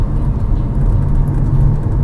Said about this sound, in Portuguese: Fico com as mãos livres e ótimo. Um pouquinho de som de carro aí no áudio, mas paciência. É bom o suficiente.